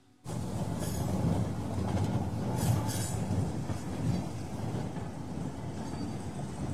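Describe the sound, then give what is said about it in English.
A train travelling to Perth in 1935 rumbles steadily along the rails, a continuous low roar with faint rhythmic clatter and occasional high wheel squeals, fairly loud with no voices. “In 1935, Doug Nichols travels by train to play football in Perth.”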